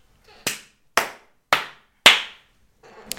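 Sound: clapping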